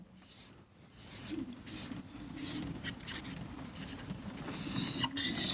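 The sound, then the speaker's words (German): A pen scratches across paper in short, uneven strokes as a small, pig-sized blue dragon is drawn, a dry hissing scrape that comes in bursts with brief pauses between, fairly soft throughout. “Vielleicht zeichne ich mal, weil ich auch die Bilder im Buch mache”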